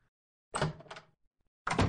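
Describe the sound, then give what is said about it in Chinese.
Two solid knocks on an office door, about a second apart, each a dull, full-bodied thud with a short ringing tail. No voices are heard. “当当两声，暮云敲开莫千行办公室的门，”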